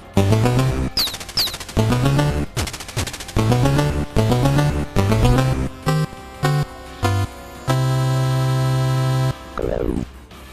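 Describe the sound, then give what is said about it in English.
Video game gunfire from the arcade tank game Tank Tank Tank, on the Wii U and in arcades: loud, rapid bursts of synthetic machine-gun fire in choppy rhythmic volleys, ending in a long sustained buzzing tone and a final descending electronic sweep. “This is uh, Tank Tank Tank on the Wii U and also in arcades, a game that we have all played together at one time.”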